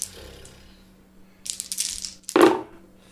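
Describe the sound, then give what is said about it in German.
A handful of six dice clatters and rattles across a hard surface in two quick bursts, the second louder and ending with a sharper knock, rolled for a sneak check in a game, with no one speaking. “Wie viele Würfel kommen da bei dir zusammen? Immer noch sechs.”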